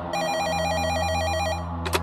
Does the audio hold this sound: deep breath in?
no